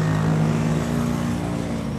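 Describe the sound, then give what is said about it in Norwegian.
Loud, steady roar of heavy traffic in central London, on Marylebone Road going into Harley Street, with construction work around; engines drone low with a constant wash of road noise and no voices. “Og det er bygningsarbeider, det er trafikk overalt, som vi hører.”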